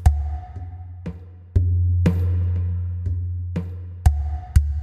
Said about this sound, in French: Entendez le rythme de la percussion qui joue en arrière-plan.